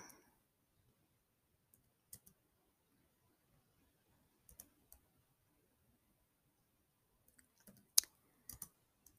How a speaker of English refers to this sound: I am going to um hang on, I have to type something. Um, what I think I'm going to do is um hang on, I can't talk while typing. Hang on.